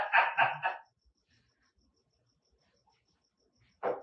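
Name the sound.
dog barking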